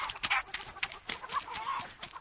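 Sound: chickens clucking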